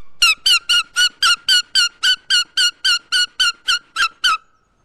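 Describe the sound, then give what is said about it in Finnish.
A loud, shrill squeal blown on a plastic logging-marking ribbon collected from the forest, mimicking a goshawk call: a rapid even series of about fifteen sharp squeaks, with no talking. “tällä se aika, aika kuuluva ääni, mutta kanahaukan ääni on tosi kova.”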